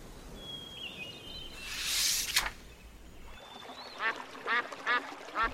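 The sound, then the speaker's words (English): A brief rustling, pouring burst like scattered bird food, followed by a run of loud, rhythmic duck quacks as a family feeds ducks at a park, with faint bird chirps in the background outdoors. “Wilma, Wilf, and Dad fed birds.”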